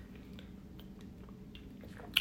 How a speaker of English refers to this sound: water break, hold on.